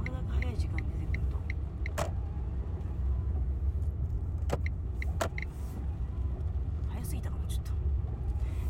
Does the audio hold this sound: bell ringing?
no